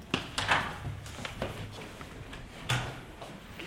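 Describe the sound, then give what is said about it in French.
A heavy door in a former psychiatric hospital swings and bangs shut with a series of dull clunks and thuds, a solid louder slam coming near the end, against a low rumble. “voilà, les portes lourdes.”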